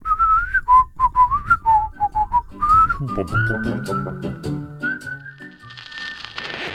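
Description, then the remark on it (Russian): A person whistles a short melody, about a dozen clear, bouncing notes over three seconds, followed by a busier stretch of crackly noise and faint sustained tones. “Просто можно свистеть там, скажем.”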